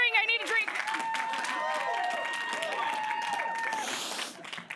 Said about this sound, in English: Yay! Keep cheering.